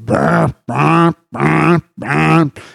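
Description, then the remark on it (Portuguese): A voice imitates an alarm clock with four loud, evenly spaced buzzing tones, each about half a second long with short pauses between, then a brief breathy trailing sound. “porque eu boto o despertador e meu despertador é aquele.”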